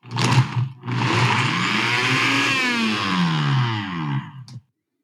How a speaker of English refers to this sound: So we've blended our drink.